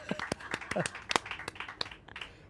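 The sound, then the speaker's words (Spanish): Brief, scattered applause for a summer 'tour de pijos' segment sponsored by Pachá: a handful of sharp, irregular hand claps from a small group, mixed with bits of voices and chatter, fading slightly toward the end. “Un aplauso para el, para el tour de pijos de ¡Un aplauso!”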